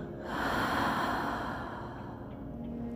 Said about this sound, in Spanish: Inhala. Exhala por la boca.